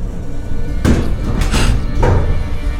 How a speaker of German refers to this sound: Der Fahrstuhl.